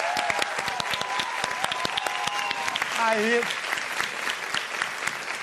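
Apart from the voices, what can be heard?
audience applause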